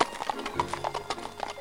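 Hooves clip-clop in a steady, quick rhythm as a horse-drawn carriage moves along the cobblestone streets of Paris, each sharp knock repeating evenly over a low rolling rumble.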